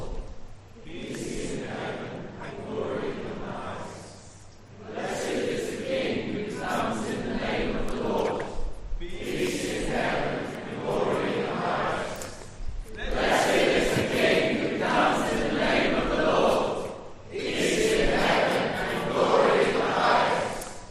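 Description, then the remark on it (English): A large group of voices chants "Blessed is the King who comes in the name of the Lord" together in unison, loud, in four strong bursts separated by short pauses, each repetition building in intensity. “we'll do it three times, and you can get as loud as you want by the third one, or as loud as you dare”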